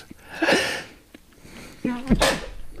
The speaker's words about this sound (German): Ich fürchte, ich muss gleich niesen.